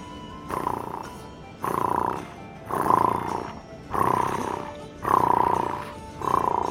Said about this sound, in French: Euh, donc je, je, j'arrive à repérer d'où vient le son du ronronnement. Oui. Du centre de la pièce. Au centre de la pièce, il y a un, un berceau qui se balance.